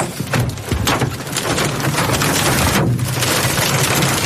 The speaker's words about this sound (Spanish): El granizo grande. Es peligroso. Es peligroso.